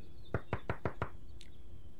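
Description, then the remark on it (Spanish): Someone tries to open a door, making five quick, evenly spaced, fairly loud rattling thuds, followed by a faint brief high chirp and quiet background. “En ese instante, alguien intentó abrir la puerta.”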